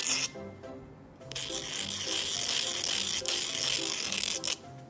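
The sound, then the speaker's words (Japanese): Steady scratchy rubbing of sandpaper worked in circles against the cut end of a nylon filament to round off its angular corners, a continuous gritty rasp with a couple of brief hitches, fading out near the end. “一方のこのナイロンの針はえー、っとあこうじゃないかこっちかえー、っと断面が角というかねカクカクっとなりますのでそれをねまずこう紙やすりでねぐりぐりぐりぐりして輪を描くようにしてね角を落とします”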